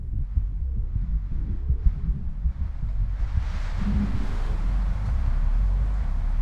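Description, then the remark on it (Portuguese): A hurricane wind roars steadily, a deep rumbling gust that swells into a broader, hissing rush halfway through and keeps blowing without pause. No voices. “Se ouve como o barulho de uma imensa roda que gira e desempenha o vento. Um furacão os separa.”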